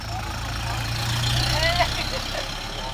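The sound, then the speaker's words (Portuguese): A Chevrolet Bonanza car engine rumbles with a steady low drone, swelling slightly toward the middle as it rolls past, with faint indistinct voices in the background. “E aí eu tenho um, uma lembrança de um carro passando, um carro bem característico da época, é, um Chevrolet Bonanza.”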